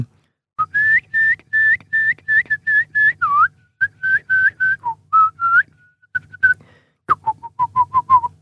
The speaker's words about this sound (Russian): Это верхний стиль да, горлового пения.